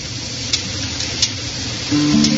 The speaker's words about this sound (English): crackle of a roaring fire behind us you hear in there.